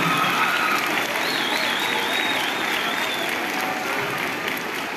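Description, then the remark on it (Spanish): Sustained audience applause for Santa Claus at a Christmas gift giveaway for children, a dense, steady clatter of many hands clapping at even loudness for several seconds, with a faint whistle or cheer riding above it and no one speaking. “Un agradecimiento y un aplauso a Santo Claus que hace posible todo esto regalos.”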